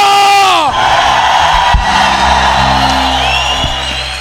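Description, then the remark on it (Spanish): A large crowd erupts in loud, joyful shouting and cheering, with a rising-and-falling whoop at the start, then a sustained roar of voices over low, steady musical tones. “Se oye un grito de júbilo.”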